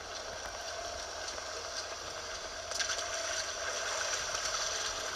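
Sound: waterfall rushing water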